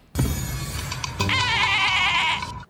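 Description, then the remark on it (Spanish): A loud goat bleat, played alone as a sound effect announcing a cancellation, its wavering, nasal cry rising into a sustained quavering call that lasts about two seconds before cutting off abruptly. “Sí, ese es el sonido oficial de cuando se cancela.”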